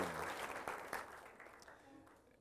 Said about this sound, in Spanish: Dele un aplauso al Rey de la Gloria. Jesucristo, nuestro Señor y glorioso Salvador.